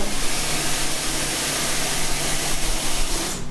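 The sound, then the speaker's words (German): A coffee machine runs with a steady, broad hiss and low mechanical hum, holding an even loudness for a few seconds before cutting off abruptly at the end. No one speaks. “Und ich mache mir jetzt einen Kaffee.”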